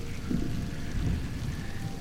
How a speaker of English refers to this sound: I've got little uh, rain sounds in the background that you can hear.